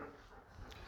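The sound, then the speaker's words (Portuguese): A dog whimpers softly, a brief, quiet whine lasting only a moment with no voices over it. “Esse é um cachorro que ele vai, ficar, vai ser vegano, né?”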